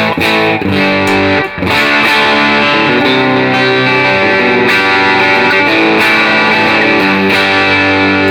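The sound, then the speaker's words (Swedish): Overdriven electric guitar played through a Warm overdrive pedal with its gain turned up, into an amp, loud and sustained with thick, harmonically rich chords and a brief dropout midway, no voices present. “Så när du drar upp gainen på, på Warm, eh, Order-pedalen mm. så kompenserar du.”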